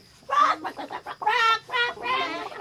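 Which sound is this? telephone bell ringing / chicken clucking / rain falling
chicken clucking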